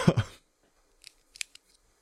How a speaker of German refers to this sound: Das klingt immer noch so ein bisschen, als würdest du dir extrem lange Fingernägel äh, während der Sendung knipsen, wenn ich ehrlich bin. Das hier? Ja, das da.